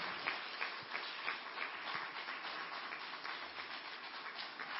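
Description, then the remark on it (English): Steady applause from a crowd for the members of a search committee, a dense patter of many hands clapping at once, sustained and fairly even in loudness from start to finish with no talking. “So I'd like to give a hand to the members of the search committee. Go ahead. I see people starting to clap.”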